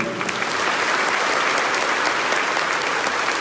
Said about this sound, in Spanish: Aquí nació la orquesta … y la orquesta cumple este año 32 años, 30 años, perdón, 30 años, porque en el 92 aquí nació la orquesta … y yo les pido un aplauso fuerte para ellos.